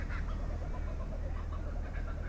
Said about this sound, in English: You can hear the kookaburras. Those are kookaburras, most famous Australian bird. The laughing kookaburra. You can hear that.